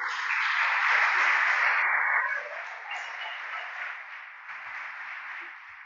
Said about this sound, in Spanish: Aplauda al Señor, por favor.